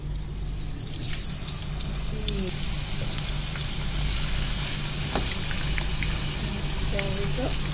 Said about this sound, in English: Right, so the wok has got oil in it and um, the oil's just been heating up. Yep. And just going to get a spoon and the potato is going to go into this oil. So there's a reasonable amount of oil in the wok for kind of deep frying.